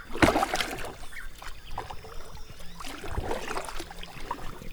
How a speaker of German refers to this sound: So, aber jetzt will ich doch mal weiter paddeln.